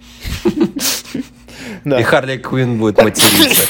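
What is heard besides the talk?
sneeze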